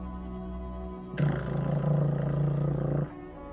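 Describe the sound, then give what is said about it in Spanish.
A mine cage elevator descending: over a low steady hum, a loud, dull grinding rumble with a deep droning tone starts abruptly, runs for about two seconds, then cuts off. No voices. “Y esa jaula, ese ascensor, empieza a bajar con un ruido sordo.”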